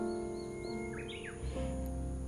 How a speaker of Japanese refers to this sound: ウグイスが鳴いてます山の中腹に住んでるのでいろんな、えー、鳥の鳴き声も聞こえますし生き物もいます